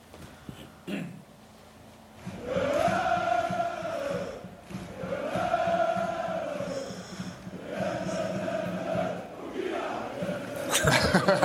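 A large crowd of fans chants 'Bokila' in unison to a familiar tune, the melody swelling in repeated phrases roughly every three seconds, loud and reverberant.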